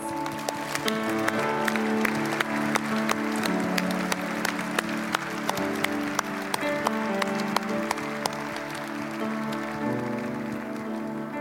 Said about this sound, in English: Let's stand together, right, and let's sing. applause right now, can we just worship and praise Jesus for what he has done for us through our applause? Can we do that?